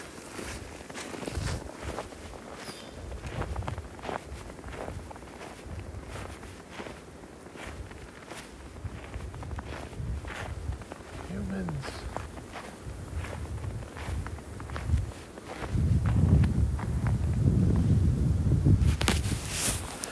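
Steady footsteps crunch along outdoors at night, each step a dry scuffing impact at a walking pace, with no voices. A low rumbling noise swells underneath during the last few seconds.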